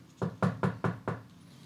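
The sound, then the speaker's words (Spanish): Five firm knocks on a wooden door in a quick, slightly uneven rhythm, clear, with no voices. “y cuando nos persigue, ah, toca la puerta.”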